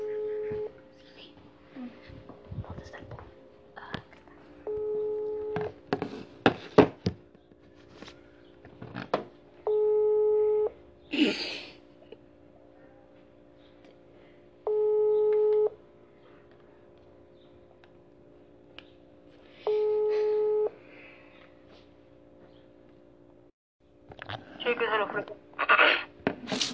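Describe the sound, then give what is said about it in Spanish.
A telephone ringback tone repeats four times as a call is placed again, each steady electronic burst lasting over a second and spaced about five seconds apart, with faint voices and handling noise around them. “le voy a llamar de nuevo, a ver qué pedo.”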